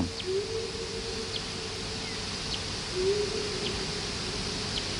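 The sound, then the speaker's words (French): Echolocation calls of a Daubenton's bat preparing to hunt over a pond at the start of the night, slowed to audible pitch, come as faint, evenly spaced chirps about once a second over a steady hiss and a low droning hum, with no voices. “une chauve-souris, un murin de Daubenton qui est euh, en train de se préparer pour aller euh, chasser au-dessus de l'étang”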